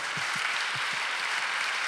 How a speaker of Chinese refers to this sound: 好吧，我们也给上帝一个掌声。